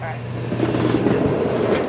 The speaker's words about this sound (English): she uses to push the car forward and get it to engage with the chain that lifts it up to the top of the shed